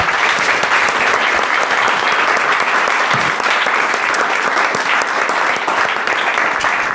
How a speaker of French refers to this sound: Nous sommes arrivés au bout de ce débat et je pense déjà qu'on peut féliciter, applaudir nos quatre candidats.